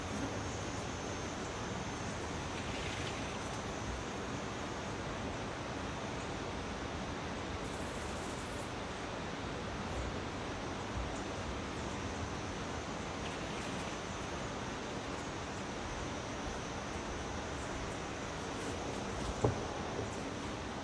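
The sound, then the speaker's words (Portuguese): A waterfall's steady, dense roar of rushing water fills the scene, loud and unbroken throughout, with no voices and only a brief faint click near the end. “Vai curtindo o som da cachoeira.”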